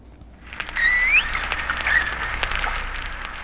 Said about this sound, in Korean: 무슨 소리지 아세요? 얘가요. 바닷속 깊은 곳에서 내는 돌고래 소리입니다. 지들끼리 뭐라 그러는 거예요, 지금. 돌고래 소리입니다. 인간하고 참 친숙한 네, 돌고래 소리가 오늘 보물 소리입니다.